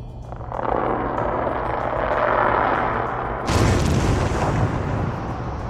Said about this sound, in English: What's most interesting about this is that high pitched bubbling sound. I've never heard anything like it. I thought it could be a black smoker or thermal vent.